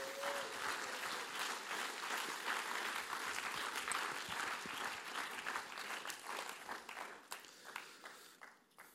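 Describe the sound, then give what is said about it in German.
An audience claps for a guest coming onto the stage, in steady, dense applause for several seconds, a broad crackling wash of many hands that thins into scattered claps toward the end. “Und wie wir es immer machen, wenn Leute auf die Bühne kommen, geben wir einen grossen Applaus.”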